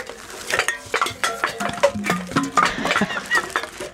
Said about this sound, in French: Alors j'ai sorti toutes mes canettes pour toi. Regarde, j'en ai, j'ai tout un sac. Regarde ça, on va faire ça comme ça là, ça va être beau à la télé.